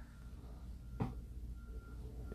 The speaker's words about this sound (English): there's a truck backing up somewhere.